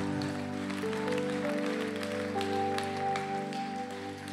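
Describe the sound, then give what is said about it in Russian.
An audience at a church worship service applauds God steadily for about four seconds, a dense crackle of clapping over a sustained, droning musical tone that holds underneath throughout. “Дай ему огромные аплодисменты.”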